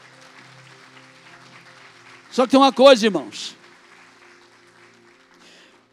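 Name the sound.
audience applauding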